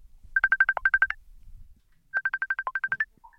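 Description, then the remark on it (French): A telephone being dialed to call a group confined in a house in Brussels: two quick runs of about ten short electronic beeps each, steady mid-high tones with a brief pause between the runs and no voices. “Nous les avons appelés, voilà ce qu'ils nous ont raconté.”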